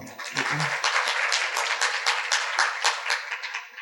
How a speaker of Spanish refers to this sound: Buena pregunta, un aplauso, por favor.